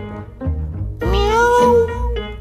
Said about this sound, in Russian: а это котенок был.